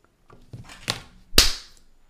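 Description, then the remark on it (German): A brief burst of overdriven applause: a handful of harsh, distorted claps, irregularly spaced, ending in one especially loud, crackling clap that trails off quickly. No voices. “Komplett übersteuert.”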